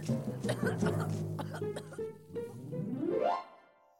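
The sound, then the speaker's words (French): A fairly loud voice imitates a wolf coughing and spitting as it runs away after burning embers are slid into its mouth: a string of rough, sputtering bursts over a growly hum, ending in a rising, strained sweep that fades out. “Oui, oui, ça brûle Le loup se sauve en toussant et en crachant.”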